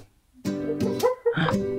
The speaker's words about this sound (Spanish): Mi perrita empezó a llorar. Bueno, es que tiene algunas pesadillas algunas veces, pero no se preocupen si lo escuchan de fondo, ojalá que no se escuche de fondo, pero si no se escucha de fondo no hay problema ya está, está más tranquila ya.